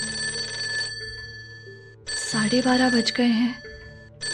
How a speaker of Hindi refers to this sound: रात के साढ़े बारह बजने वाले थे मैंने स्टडी टेबल बंद किया किताबों को साइड रख के सोने ही वाली थी कि फोन बचने लगा